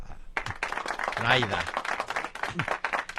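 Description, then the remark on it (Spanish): A room full of people breaks into steady applause for Senator Naida Venega, who wants to establish the Gille Ávila medal, after a brief silence, dense clapping continuing to the end, with a voice calling out or cheering midway through. “Vamos a darle un aplauso a,”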